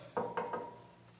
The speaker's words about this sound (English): You know they're on the other side of the door and you want to talk to them. So you're going to knock and you're going to wait.